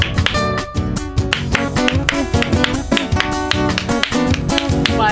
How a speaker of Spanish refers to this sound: Bueno, el aplauso ya. totalmente descoordinado.